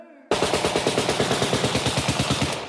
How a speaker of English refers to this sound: had to throw the gunshot sounds in there.